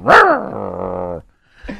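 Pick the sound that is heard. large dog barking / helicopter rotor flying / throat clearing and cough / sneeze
large dog barking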